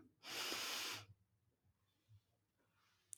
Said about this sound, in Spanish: Y tomar una respiración profunda.